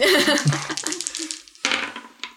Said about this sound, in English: I'm rolling those dice.